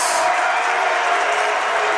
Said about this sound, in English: 45 seconds to go. Brandon Valley crowd as loud as they've been tonight.